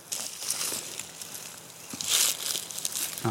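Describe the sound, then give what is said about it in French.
Mugwort (artemisia) leaves being crumpled a little between fingers, giving a soft, irregular crinkling and crackling that swells into a brief louder burst partway through. No one speaks. “Là, je la froisse un peu entre mes doigts.”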